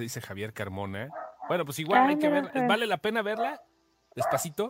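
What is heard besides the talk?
dog barking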